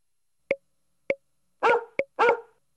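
A dog barks in a short series: three sharp, clipped yips followed by two fuller, louder barks, with brief silences between them.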